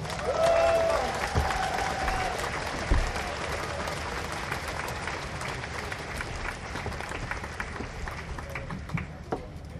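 A large audience applauds steadily for about ten seconds to welcome Man Booker Prize-winning writer Richard, dense clapping with a few faint cheers, the applause tapering slightly toward the end.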